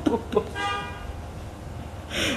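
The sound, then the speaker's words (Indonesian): A car horn gives one steady, moderately faint honk lasting under a second, with brief breathy noises before it and a soft hiss afterward. “aduh ada klakson lagi”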